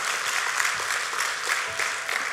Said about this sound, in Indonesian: Beri tepuk tangan yang meriah buat Tuhan.